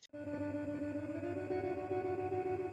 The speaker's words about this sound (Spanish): Qué genial, entonces es el eco de tu estudio. Sí, así es.